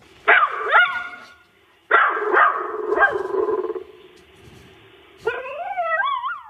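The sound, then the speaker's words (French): A poodle from Dieppe named Rex barks and yips in three separate bursts, loud, with rising, whining pitch slides at the end and short pauses between the bursts. “On écoute tout de suite une question d'un caniche de Dieppe, Rex.”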